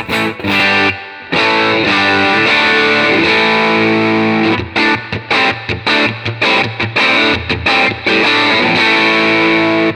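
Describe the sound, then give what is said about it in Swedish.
Overdriven electric guitar through a high-gain amp with the gain turned up, thick and saturated, with sustained distorted chords followed by choppy, rhythmic stabs and short gaps between hits. Loud and with no talking. “Och gör vi tvärtom då, försöker få samma sak med gainen. Jag driver, vrider upp gainen lite grann.”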